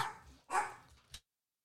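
A small dog gives three quick, sharp barks, the middle one loudest, each a bright yappy burst with high overtones, barking because someone was at the door.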